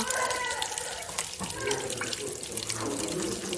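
Whisky pours steadily into a container with a continuous, splashy trickle, fairly loud, running unbroken throughout with faint clinks and bubbling.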